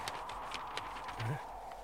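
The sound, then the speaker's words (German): Heavy footsteps stomp at a steady walking pace across a beet field at night, about seven thudding steps over a low, constant background hum. “Möchte schon die ganze Zeit wissen, mit welchem Ziel wir über diesen nächtlichen Rübenacker stampfen.”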